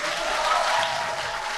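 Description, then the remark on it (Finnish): An audience breaks into steady, loud applause for the event's technical crew, a dense wash of many hands clapping at once with no individual claps standing out, sustained evenly throughout with no voices. “Heillekin voitaisiin jo nyt antaa isot aplodit,”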